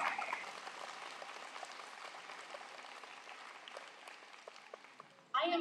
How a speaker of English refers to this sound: How amazing are these graduates? Give yourselves a huge, huge welcome applause.